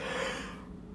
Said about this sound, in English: I'm so sorry, y'all. Why am I yawning? That is crazy.